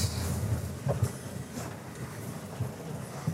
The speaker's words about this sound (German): sitzt im Zug, der langsam aus dem Bahnhof rollt.